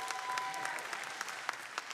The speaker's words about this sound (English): Let's give him a round of applause this morning.